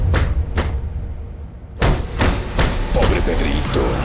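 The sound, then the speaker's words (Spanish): Loud, heavy banging on an apartment door, a few forceful blows, a brief pause, then a quicker burst of irregular thuds, harsh over a noisy background. “No acababa de terminar su frase cuando saltó de su silla espantado por el ruido que se escuchó en la puerta de su departamento.”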